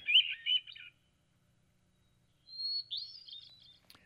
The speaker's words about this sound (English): So there you have it. That is the call or song, if you will, of the hermit thrush